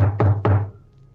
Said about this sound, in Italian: Io concordo col mezzelfo, proviamo a bussare. Allora. Eh, allora andiamo a bussare.